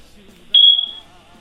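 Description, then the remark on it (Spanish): A smoke alarm gives a single short, high-pitched low-battery chirp that rings out sharply and fades within about half a second, heard alone over a quiet background. “Hay que te voy a traer unas pilas para la alarma.”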